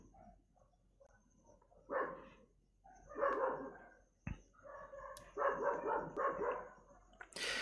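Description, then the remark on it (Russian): Several dogs bark together in overlapping bursts as one starts barking and the others join in, a few scattered yaps building into busier clusters of barking. No one is talking. “Одна залаяла, и все остальные стали вместе с ней лаять.”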